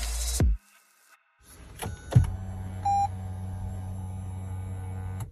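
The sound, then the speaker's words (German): A car door thunks shut, then the electric steering column motor of a Mirai car hums steadily for several seconds, automatically moving the steering wheel toward the driver once the door closes, with a brief electronic beep partway through. “eine elektrische Lenksäule, wo das Lenkrad automatisch rangefahren kommt, mhm. sobald du die Tür zumachst und auch wieder wegfährt, wenn du das Auto aus ausschaltest.”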